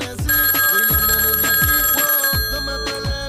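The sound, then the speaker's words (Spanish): A telephone rings with a bright, electronic trill for an incoming live call, repeating in quick bursts over a steady tonal backdrop. It's loud, with no one talking. “¿Aló? Sí, creo que tenemos una llamada.”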